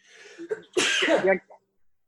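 A single sneeze: a couple of short, breathy intakes, then one loud, hissing burst lasting about half a second that trails off into a brief exhale. No one speaks.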